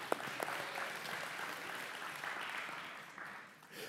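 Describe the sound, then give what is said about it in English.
A crowd cheers and applauds steadily, a dense wash of clapping with whoops mixed in, holding at a fairly even level for several seconds before easing slightly near the end. “Oh, yeah, yeah, let's cheer for. Woo!”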